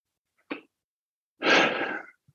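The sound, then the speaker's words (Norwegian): Heavy breathing: a short, sharp intake followed by one loud, forceful, rushing exhale lasting over half a second, with no talking. “jeg puster tungt der.”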